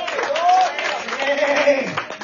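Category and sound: crowd, audience applauding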